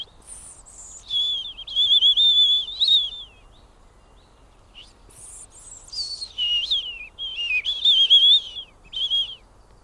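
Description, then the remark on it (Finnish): A person whistles an imitation of a European robin's song: two bursts of high, trilling, warbling phrases with quick pitch slides and sustained wavering notes, separated by a short pause. “Miten se punarinta? Ei ole ainakaan helppo, sen voi sanoa.”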